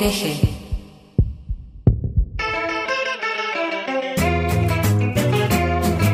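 A few deep, booming heartbeat thumps sound in the opening seconds, then a sustained musical chord rises and swells louder, burying the beat under a bright, full band sound.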